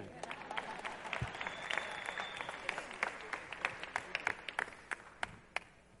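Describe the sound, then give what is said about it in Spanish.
An audience breaks into applause, a dense patter of many hands clapping that holds steady for several seconds before thinning out to a few scattered claps at the end. “Un aplauso para el chiquitito de ese.”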